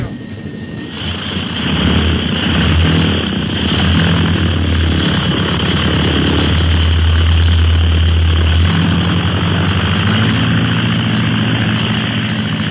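A propeller plane's engine roars steadily, building up in the first couple of seconds and then holding a loud, droning hum with shifting low tones as it takes off.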